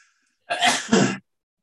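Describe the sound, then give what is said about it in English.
A single sharp sneeze bursts out, a quick two-part explosive blast lasting under a second, with silence before and after. “Bless you.”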